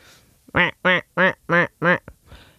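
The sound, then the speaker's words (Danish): A person imitates a tree frog with five loud, nasal croaks in an even, steady rhythm, with brief quiet gaps between each call. “Der lød du ligesom altså... en, øh, en løvfrø.”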